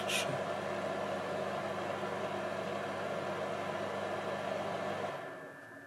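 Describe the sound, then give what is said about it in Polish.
A small cooling fan inside a battery device whirs steadily with a faint electrical hum, continuous as the device keeps running after being disconnected, then drops noticeably quieter just before the end. “Urządzenie, jak słyszycie, jeszcze trochę pracuje, gdzieś tam wiatrak chodzi.”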